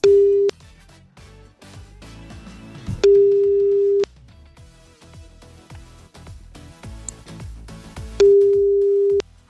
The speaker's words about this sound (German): Erster Call geht raus, irgendwo klingelt jetzt gleich ein Telefon.